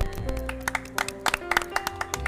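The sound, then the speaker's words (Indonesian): Sparse, uneven audience applause for Kafe 35: a dozen or so sharp claps scattered over two seconds, moderately loud, over a steady sustained musical tone. “Tepuk tangan dulu dong buat Kafe 35 ya kan.”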